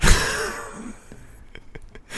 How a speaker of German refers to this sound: gähnt er mich hier an, das gibt's doch ja, gar nicht.